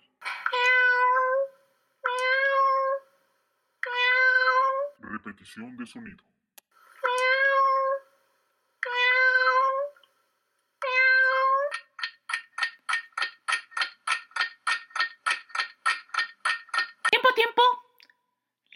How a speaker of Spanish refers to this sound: Correcto, es un gato. Cuando los gatos maullan lo hacen para comunicarse con humanos y no con otros gatos.